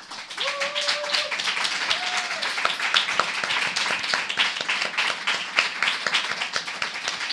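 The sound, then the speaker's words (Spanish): An audience breaks into loud, sustained applause for a women's business venture, dense overlapping claps filling all seven seconds, with a couple of short whistle-like whoops early on. “ella es un aplauso muy fuerte a este emprendimiento de mujeres bravísimas.”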